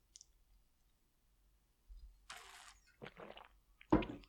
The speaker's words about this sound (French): Moi, en tout cas, une gorgée, de jus de pomme.